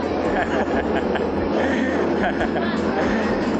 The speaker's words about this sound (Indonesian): aduh, ada suara pesawat.